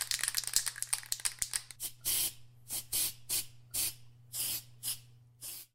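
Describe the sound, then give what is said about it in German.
Rattle of a spray paint can being shaken, followed by about eight short, loud bursts of hissing spray in a quick stop-start rhythm as a graffiti tag is sprayed onto a wall, with no talking and a faint low hum underneath. “Ja, ja, warte, ich sprühe schnell ein Tag dran.”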